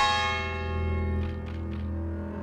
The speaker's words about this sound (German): Die Kirchenglocken scheinen ihn besonders zu beunruhigen.